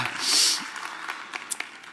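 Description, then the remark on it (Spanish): A crowd claps together to give glory to God, a brief burst of applause that peaks early, then thins into a few scattered claps and fades. “Si usted lo cree conmigo, dígame un amén, dele un gloria a Dios, un aplauso al Dios que está aquí en este lugar y vamos a entrar a la palabra.”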